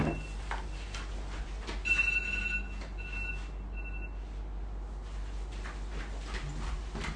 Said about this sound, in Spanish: Permítanme que está sonando aquí una pequeña alarma que voy a apagar.